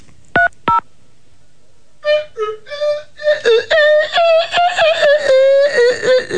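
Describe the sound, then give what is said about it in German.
Two quick electronic keypad beeps as a telephone number is dialed, followed after a pause by a long, wavering, whiny tone that rises and falls. “Ich würde sagen, dass wir da vielleicht mal ganz kurz durchrufen.”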